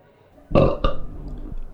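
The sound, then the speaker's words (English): A loud burp bursts out around half a second in, followed by a second guttural belch that drags on with a rough, rumbling tail before fading. “rating these beers with these suds ratings plus our signature belching sounds”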